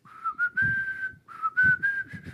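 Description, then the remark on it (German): Someone whistles a short melodic tune in two phrases, the pitch stepping up and gliding between notes, with a brief pause in the middle. The whistling is clear, with no talking. “ich kann nicht pfeifen”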